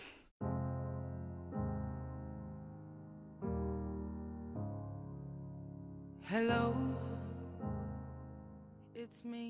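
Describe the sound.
A slow pop ballad plays: sustained piano chords change every couple of seconds, and a woman's singing voice comes in clearly over them partway through.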